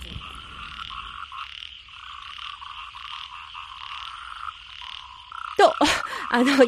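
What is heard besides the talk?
frogs croaking at night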